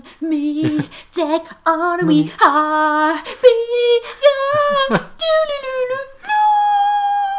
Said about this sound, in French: ah, tiens, il y a un chien dans le jardin. C'est pas le nôtre celui-là.